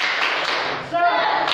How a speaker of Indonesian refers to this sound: Sebelumnya kita tepuk semangat ya. Masih ingat tepuk semangat? Masih. Oke, tepuk semangat.